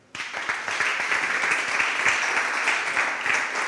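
Sustained applause from an audience, a dense wash of many hands clapping that starts abruptly and holds steady and fairly loud throughout, with no voices standing out.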